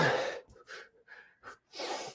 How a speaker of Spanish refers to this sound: me voy a amarrar los zapatos, las agujetas del zapato, y me agacho y me doy cuenta que para amarrarme cada zapato, tenía que aguantar la respiración tres veces. O sea, era como que, me amarro,